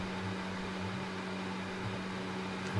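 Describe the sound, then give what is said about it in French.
An electric fan whirs steadily, a constant airy rush with a low motor hum underneath, holding at even volume throughout with no voices. “On entend bien le ventilo.”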